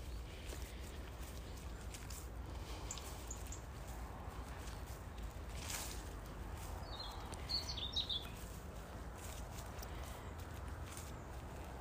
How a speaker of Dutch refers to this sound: Ik loop even te genieten omdat er vogeltjes aan het fluiten zijn. Een mindful moment.